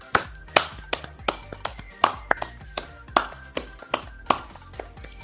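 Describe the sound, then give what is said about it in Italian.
Sharp hand claps in a steady rhythm, about a dozen evenly spaced strikes over a few seconds, sounding like a single pair of hands rather than a crowd, with no talking; applause at the close of a live stream, welcoming in 2022. “sono un quarto alle due, direi che è arrivato il momento di salutare i nostri spettatori, allora facciamogli un grande applauso, facciamo un grande applauso e benvenuti in questo 2022.”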